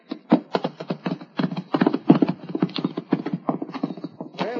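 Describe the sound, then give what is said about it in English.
Horse hooves clip-clop in a steady, fairly brisk rhythm, moderately loud, with a faint tonal hum running underneath throughout. “Give me that horse.”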